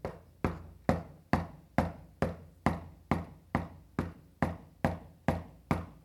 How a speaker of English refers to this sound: Just continually knock at the door. And not only that, but the image is Jesus pressed up against the door, which is a very uh, warm image of him with his ear pressed to the door, leaning into the door, knocking repetitively.